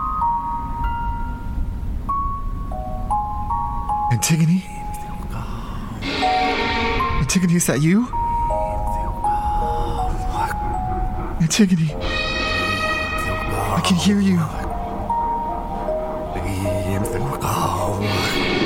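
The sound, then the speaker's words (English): A music box plays a tinkling melody of stepped notes amid dense, layered tones and low rumble, while a person speaks over it. “You hear that? It's the music box. It's playing.”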